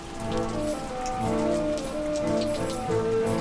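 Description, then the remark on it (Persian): Steady rain patters on a rooftop, a dense continuous spatter of drops at even loudness, with faint sustained tones humming beneath it and no voices. “بارون میاد جر جر رو پشت بوم”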